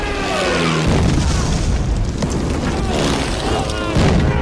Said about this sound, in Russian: раздается взрыв, они спрыгивают в окоп.